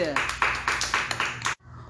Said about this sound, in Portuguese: palmas para Ana Clara, gente!